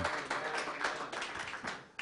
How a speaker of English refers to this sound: But anyway, let's just give Jesus another hand clap of praise, would you? Amen, amen, amen.